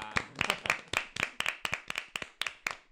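A small audience applauds a nurse on Nursing Day with sharp, distinct claps in a fairly steady, quick rhythm, roughly four per second, holding an even level throughout with no voices.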